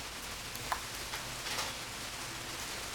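Steady ordinary rain, not icy, patters in a soft, continuous hiss with scattered droplet taps, one slightly sharper tap standing out. The sound is fairly quiet, with no one talking.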